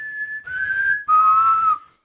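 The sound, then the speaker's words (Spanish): A person whistles a short four-note melody, clear and close, with steady held tones that shift in pitch before trailing off. No one speaks. “Reproduceme el silbido de lo de Sinsajo.”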